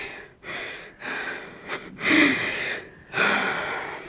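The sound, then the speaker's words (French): Heavy, breathless panting with sharp gasps from a woman out of breath after a shout, a series of loud breaths in and out at an uneven rhythm, with no talking. “Du coup, je suis essoufflée.”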